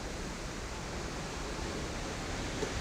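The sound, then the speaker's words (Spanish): A steady, unbroken rush of sea water streaming past a moving ship's hull, heard from the balcony of a cabin while the ship sails, a dense hiss that holds an even loudness throughout with no voices. “Y pueden entonces escuchar también el mar porque estamos navegando y estoy en el balcón de mi habitación.”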